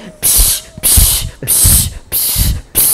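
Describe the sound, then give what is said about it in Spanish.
Five short, loud hissing bursts of aerosol insecticide spray aimed at a mosquito, fired in a quick, steady rhythm with brief pauses between them; no one speaks. “Y sientas cómo te va cayendo el insecto. Así en la cara.”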